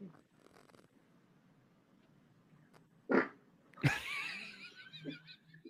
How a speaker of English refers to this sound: she farted before he even poked her butt. I, I think she knew. the best is that it startled him.